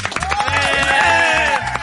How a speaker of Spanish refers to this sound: A ver, por el segundo lugar, aplauso.